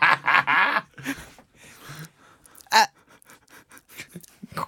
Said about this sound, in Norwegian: So, did you did you hear him, eh? Yeah, you did. Did you hear him? The, the baby.